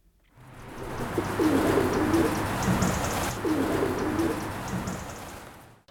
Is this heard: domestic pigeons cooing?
yes